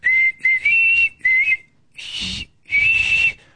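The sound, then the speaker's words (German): The 'Zum Geburtstag viel Glück' birthday melody played as high, clear whistle-like notes in several short phrases separated by brief pauses, with one breathy, noisier burst partway through; no one speaks. It is left running while waiting for the first listener to call in. “Und bis der erste Hörer anruft, lasse ich mal diese Melodie hier noch weiterlaufen.”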